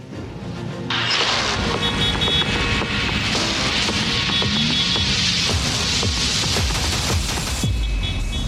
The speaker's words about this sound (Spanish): 8.15 de la mañana, esquina de Extremadura con Insurgente Sur. El tráfico como en tiempos de prepandemia.